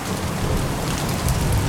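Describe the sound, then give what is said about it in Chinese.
Steady, even rain hisses throughout, a dense wash of patter with a deep low rumble underneath and no voices or pauses. “可是呢，因为路很远，而且又下雨了”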